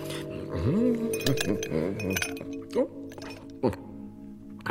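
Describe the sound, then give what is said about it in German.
Three small ice cubes clink into a glass, a few bright, separate knocks spaced over several seconds, fairly loud, with a voice-like murmur and a tonal hum in the background. “Ihr habt gefrorenes Wasser aus der Kukulle gezogen. Drei kleine Quader.”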